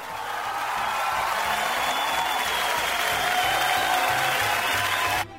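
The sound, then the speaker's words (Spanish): Steady, dense applause from many hands, marking a show reaching 8 viewers on its Twitch stream, a loud continuous clatter of clapping that holds even for about five seconds before cutting off abruptly. No one speaks over it. “Llegamos a las 8 Aplausos, por favor.”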